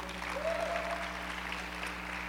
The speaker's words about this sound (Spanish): ¿Pueden aplaudirle al, Señor? Si se puede.